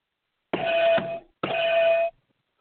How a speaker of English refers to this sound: I love this bell.